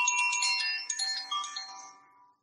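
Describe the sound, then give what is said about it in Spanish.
Delicate chimes shimmer and overlap in bright, high ringing tones, a few soft strikes layered over one another before slowly fading away. No voices. “Y este es como el último regalo al final, antes de despertarte, uno de los instrumentos preferidos míos.”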